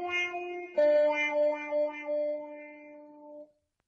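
A cat meows in two drawn-out, steady calls, a short one and then a longer, louder one. The tone is clear and fairly high-pitched, and the calls stand alone without talking.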